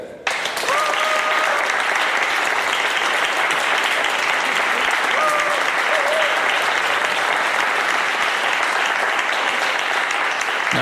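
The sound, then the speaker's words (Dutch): Sustained applause from a large audience outdoors among plants and trees, welcoming a guest to be interviewed: dense and steady clapping at full volume for about ten seconds, with a couple of faint whistles rising briefly above the crowd. “Mag ik een hartelijk applaus voor Brigitte?”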